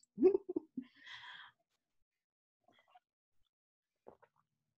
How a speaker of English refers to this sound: And I am just going to take a sip of tea because I already hear my voice. Cutting chai.